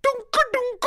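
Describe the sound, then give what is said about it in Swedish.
A single voice attempts beatboxing, chanting four quick, punchy syllables in a bouncy rhythm, imitating a beat with the mouth rather than any instrument. “Jag går på att nummer två är beatboxingen.”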